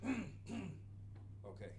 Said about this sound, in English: before I do that, I'm going to clear my throat because obviously I'm being attacked by a frog. So I'm going to turn this mic down.